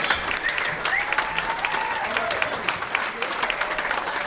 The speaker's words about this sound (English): Would you please give a wonderful, wonderful, wonderful round of applause for the fabulous